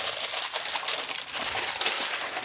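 Continuous crinkling of baking paper bought from Rusta, a dense crackly rustle that keeps going for a couple of seconds without pause and with no voices.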